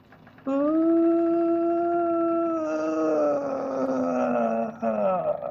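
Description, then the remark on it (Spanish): A voice imitates the crying of La Llorona, a ghostly wail: one long sustained mournful howl that holds steady, then wavers and slowly falls in pitch. Loud, with nothing else around it. “Y entonces ella empezó a escuchar el grito de la llorona, pero la llorona llorando. No mames. No, ¿cómo crees? Y, dice, y no se cortaba el llanto, y de repente otra vez.”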